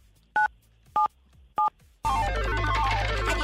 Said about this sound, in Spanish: Venga, entonces, presiona en tu teléfono el 977.